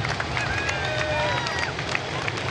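A steady roar of Amsterdam Marathon spectators along the course by the mill and the Amstel river, dense cheering and chatter with thin whistle-like tones gliding above the din, no pauses throughout.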